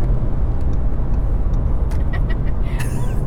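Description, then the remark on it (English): Faint, light ticks of a car's turn signal indicator tapping away inside a moving car, partly buried under a steady, loud rumble of engine and road noise. “Dave, indicate on the spoiler screen. Okay, indicating, here we go, hear it.”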